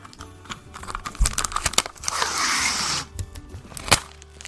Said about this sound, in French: De fermer le colis. Hop. Donc là, euh, le colis tient pas comme ça. Faut quand même mettre un peu de scotch.